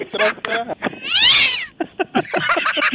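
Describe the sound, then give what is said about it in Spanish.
A person lets out one loud, drawn-out imitation of a cat's meow, rising then falling, while reciting the rhyme 'Tingo lilingo, gato rabón' about a tailless cat, between stretches of quick talking. “Ese gato rabón le va a salir Satanás.”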